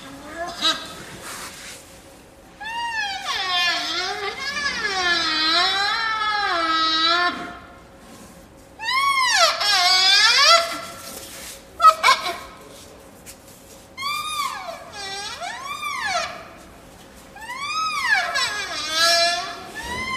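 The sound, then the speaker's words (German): A young animal, wanting to drink milk from its lying mother, calls out in a series of high, wavering, squeaky bleats, coming in four or five loud bursts with brief pauses between them, and no one speaking. “Und kürzlich hätte sie so gern getrunken. Aber die Mutter Tanda ist gerade ein bisschen faul angelegen”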